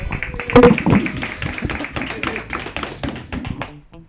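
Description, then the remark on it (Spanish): Steady applause: a dense patter of overlapping hand claps that holds for a few seconds, peaks early, then thins and fades out, with faint voices mixed underneath. “Realmente, aplauso a todos.”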